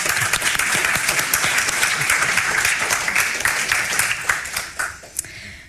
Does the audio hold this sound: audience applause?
yes